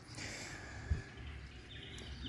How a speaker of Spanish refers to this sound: Me van a tener que disculpar primero que nada el ruido de las aves y de autos y de cosas que sé que hay mucho ruido ambiente, pero es lo que hay por el momento.